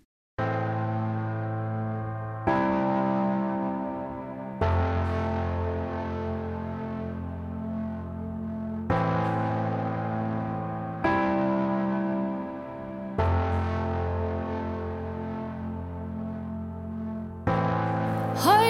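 A song opens with an instrumental intro: full, sustained chords struck every two seconds or so, ringing out steadily and fairly loud, with no singing yet.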